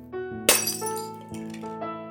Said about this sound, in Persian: همین که ظرف مربا رو برداشت یهو شیشه مربا از دستش سر خورد و افتاد و شکست